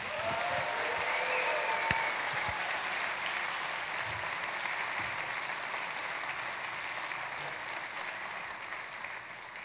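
A large church audience claps steadily and loudly for about ten seconds, welcoming a speaker for the series Thriving in Babylon, a dense wash of applause with a few whistles and cheers rising near the start before it gradually eases off.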